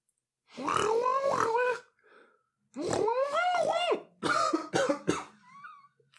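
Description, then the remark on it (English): A single voice makes three strained, drawn-out shouting noises, imitating muffled shouts from outside a ship, with rough cough-like bursts in the last one. Loud, with short pauses between. “Um, yeah, I'm just gonna make like some noises to have them like doing like muffled shouts from outside the ship.”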